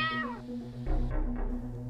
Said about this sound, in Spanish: Pasaron tres años y una noche sentí que mi gato rascuñaba la puerta del closet.